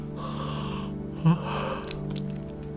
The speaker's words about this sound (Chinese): 六十二个哈欠，六十三个哈欠，六十四个哈欠，六十五个哈欠，六十六个哈欠。